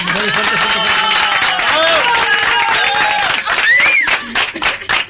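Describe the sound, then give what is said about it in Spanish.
A crowd bursts into loud, sustained applause, dense rapid clapping mixed with cheering voices and a rising whistle, holding steady for several seconds before breaking up toward the end. “bueno, un aplauso fuerte, un aplauso fuerte para”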